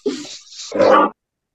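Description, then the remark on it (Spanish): A dog lets out two short, sharp barks in quick succession, loud, the second louder than the first, with no one talking. “aquí, está el perro ladrando.”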